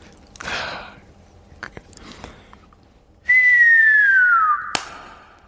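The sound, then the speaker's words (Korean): A person mimics with the mouth a whistling firework of the kind people set off on a beach at night, which bursts in the sky: a loud, sustained whistle that slides steadily downward for over a second, ending in a sharp burst. Softer breathy sounds come before it. “자, 해보세요. 폭죽.”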